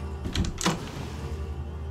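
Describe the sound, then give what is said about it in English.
A door is pushed open with a short creak and a soft knock or latch click, over in under a second. A steady low background hum continues afterward. “Suddenly, all sound from within ceased, and I pushed open the door to make it seem as if I had not been lurking, and instead had come in to check on him.”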